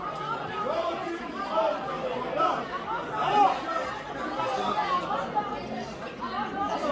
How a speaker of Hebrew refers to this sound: זה שנכון, אנחנו שומעים אה, אה, את הקריאות כן. אה, של אה, המפגינים נגדו